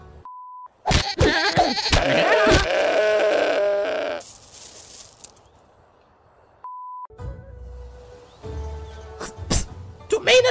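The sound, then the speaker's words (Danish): A goat bleats in a few wavering, nasal cries, fairly loud, with short electronic beep tones sounding before the bleats and again partway through. “En ged. En ged laver det mælk.”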